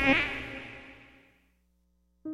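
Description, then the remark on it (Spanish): A whiny, high-pitched mosquito buzz starts loud, then fades away over about a second and a half; after a brief silence, a steady buzzing tone starts up again. “Ningún mosquito fue lastimado durante la realización de este anuncio.”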